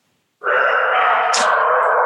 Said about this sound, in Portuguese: E o vizinho tá com o cachorro aqui. Daqui a pouco. um cachorro bem silencioso. cachorro bem silencioso.